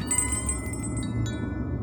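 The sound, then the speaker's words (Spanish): A shop's front door bell jingles with a quick run of bright, tinkling strikes as a man enters the shop, then one more ring as the tones linger and fade over a low room hum. “La admiró unos instantes antes de que la campana de la puerta principal atrajera su atención.”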